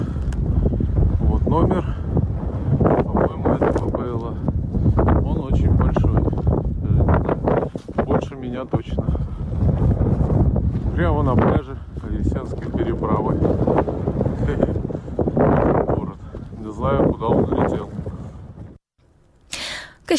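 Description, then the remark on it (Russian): Strong, gusting wind roars steadily into the microphone for about twenty seconds, loud, with rumbling buffets and indistinct sounds mixed in before it drops off briefly near the end, during a cyclone bringing snowfall and strong wind in Ukraine. “В Крыму он проявился штормом, а на материковой части страны снегопадом с сильным ветром.”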